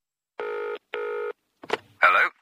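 A BT landline telephone rings in the classic double burst, two loud trills, followed by a brief clatter like the handset being picked up and a short tonal sound.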